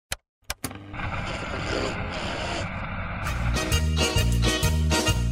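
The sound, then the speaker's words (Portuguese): A short produced intro jingle: two sharp clicks, then a roaring engine-like rev building steadily, giving way to a loud, punchy rhythmic beat. No one speaks. “É, pode botar a vinheta é.”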